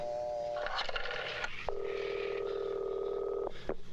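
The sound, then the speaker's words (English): Rotary phone dialing, with short tones and clattery bursts followed by a steady buzzing phone tone held for about two seconds. Fairly loud, with no talking. “Why did it make a rotary phone sound?”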